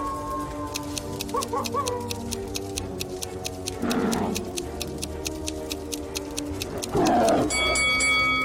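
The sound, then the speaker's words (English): Hungry tigers waiting behind a door roar twice, two deep, rumbling growls a few seconds apart, over a steady ticking beat and a soft sustained musical drone, with no talking. “Hungry tigers are waiting behind the first door.”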